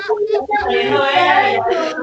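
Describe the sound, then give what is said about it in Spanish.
A child cries and whines in a high, strained voice, loud, rising into a sustained wail before breaking off, with other young voices squabbling around it in the background. “pelean el background, esto aquí es un caos.”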